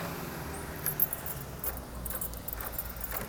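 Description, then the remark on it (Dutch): Keys jingle in a few short metallic bursts as the front door of a home is unlocked and opened, over a steady low outdoor rumble of traffic. “Even de deur open.”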